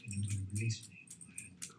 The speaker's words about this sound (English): I don't know if you can hear. My, my dog is actually scratching herself while I'm watching.